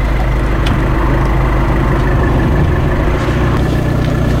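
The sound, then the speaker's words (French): A car engine idles steadily, a constant low rumble with a droning hum that holds evenly for the whole stretch, with no voices. “Voiture.”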